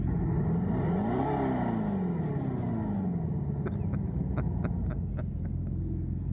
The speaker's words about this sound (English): Rev it up, rev it up. Come on, here we go.